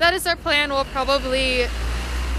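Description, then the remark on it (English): A steady low rumble of city street traffic fills the background while a person speaks, the road noise carrying on alone after the talking stops. “Sorry for the traffic noises.”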